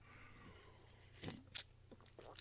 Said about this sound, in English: I'm gonna have a sip of coffee because this is kind of a deep concept right here. Give me one moment.